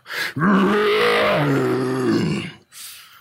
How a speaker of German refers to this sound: Und plötzlich halt ein Grollen durch die Hülle.